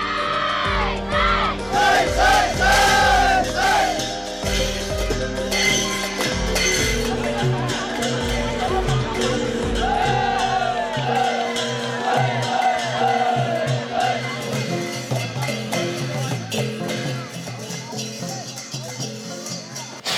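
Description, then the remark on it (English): A large crowd cheers and shouts loudly and continuously at a dragon boat race, with excited whoops and voices rising over a steady rhythmic drumbeat, sustained throughout. “On the surface, the Dragon Boat Race is a mixture of tradition, entertainment, joy, and friendly competition.”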